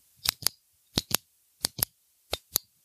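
A hand rubs back and forth across a metal drain grate, making four pairs of short, crisp rattling scrapes in a steady rhythm, with no talking.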